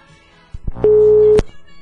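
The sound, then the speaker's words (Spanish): A loud, steady electronic telephone busy tone, heard after a phone call was cut off, holds for about half a second after a couple of short clicks, then cuts off abruptly. “Si nos puede volver a llamar porque se cortó la llamada.”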